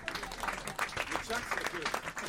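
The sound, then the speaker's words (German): Brief applause from a small audience for a very tall man: a dense, steady patter of many hands clapping at an even loudness for a couple of seconds, with some indistinct voices mixed in. “Hallo, ein oh. kleiner Applaus für diesen sehr großen Mann.”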